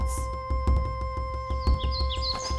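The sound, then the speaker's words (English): Birds chirp and twitter in quick high bursts, growing busier in the second half, layered over a steady humming tone and a soft rhythmic low thumping. “Emperor Elm put out a call to his royal army of birds.”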